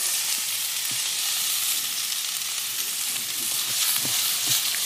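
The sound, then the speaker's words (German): Broccoli and bell peppers fry and sizzle steadily in a hot wok, a dense, even crackling hiss with a few soft clicks and knocks of stirring underneath, fairly loud throughout. “Brokkoli und Paprika schön ähm, anbraten.”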